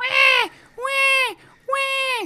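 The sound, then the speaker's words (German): A voice imitates a crying baby with three drawn-out wailing cries, each rising then falling, separated by short pauses, loud. “Auf jeden Fall sitzt jetzt hier die Mutter da und, ne, und jetzt fängt dieses Baby an zu schreien. Warte, Dann, ich mach, ich mach den Sound.”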